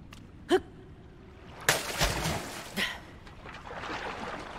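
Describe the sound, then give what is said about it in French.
A video game dive splash: a brief sharp hit, then a loud, bright splash of water, a smaller splash after it, and a steady bubbling, churning water wash trailing off. “En tout cas, le sound design, la, nage, le plongeon, le plouf.”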